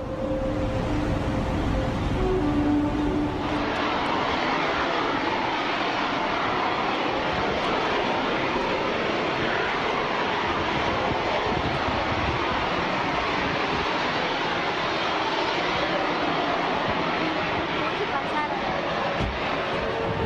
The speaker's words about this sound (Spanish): escucharan este audio donde es extraído de diferentes partes del mundo con lo que conocemos hoy en día como los sonidos en el cielo o trompetas en el cielo. Vamos a escucharlo.